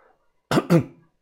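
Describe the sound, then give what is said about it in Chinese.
A single short cough from someone standing at a doorway breaks a quiet moment, made of two quick, forceful bursts run together, with no talking around it. “这个时候，我咳嗽了一声，站在了门口。”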